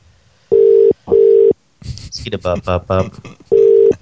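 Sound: phone call ringing tone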